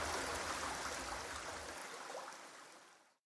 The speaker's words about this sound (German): Am Lagerplatz sprudelt eine kleine Quelle klares Wasser aus dem Fels.